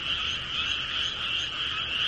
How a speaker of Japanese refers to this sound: 遠方から聞こえてくるカエルの合唱を聞くときくらい、日本の自然という感の深い時はない。